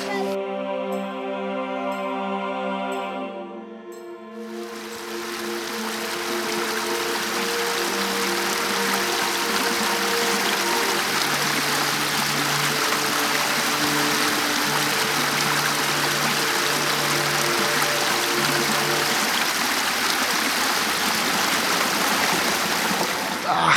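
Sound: babbling brook water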